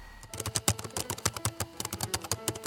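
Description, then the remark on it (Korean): Rapid, irregular clicking of keys on a laptop keyboard, fairly crisp, with bursts of quick keystrokes and brief pauses, no voices. “네, 네, 내 사각형 노트북 어디 갔나?”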